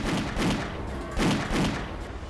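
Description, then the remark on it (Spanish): Sustained bursts of machine-gun fire, shot from a courtyard through a window into a room, pound away in a rough, repeating rhythm, loud and dense with heavy low thuds, like a volley of shots fired in quick succession. “Ametrallaron la habitación desde el patio y por una ventana.”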